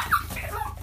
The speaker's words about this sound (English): You can hear my dog freaking out right now.